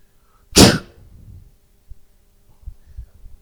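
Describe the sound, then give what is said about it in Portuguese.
A single sharp, breathy burst made with the mouth imitates a switch flipping, loud, followed by a few soft low thumps and then quiet. “Imagina uma chave dentro de Adão e quando Adão come, ela fala assim: mudou. Eu vou fazer de novo esse barulho.”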